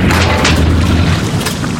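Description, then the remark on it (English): A boat's propeller strikes a big rock while cruising along the intercoastal: a loud, heavy booming crunch with grinding rumble that stays steady for nearly two seconds, with no voices. “hitting a really big rock.”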